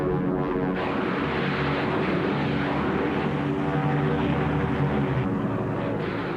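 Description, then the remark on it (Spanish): Typhoon propeller fighter planes dive from 600 metres above the battlefield to attack the enemy, roaring with a loud, steady engine drone full of humming harmonics that holds nearly constant for several seconds, with no voices. “Los pilotos de los Typhoon esperaban a 600 metros de altura sobre el campo de batalla. Cuando recibían el llamado, se abalanzaban sobre el enemigo.”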